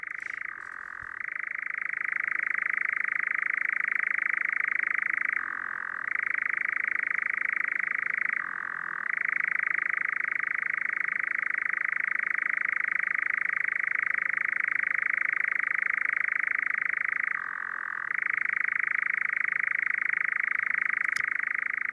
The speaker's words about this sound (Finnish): Pitäisikö me soittaa vähän kehrääjää, koska sitä on toivottu. Aika moni on sanonut, vaikka tämä ei mikään toivekonsertti ole, mutta on, oli tullut sähköpostiin viestejä, että kehrääjä soimaan heti alkuun.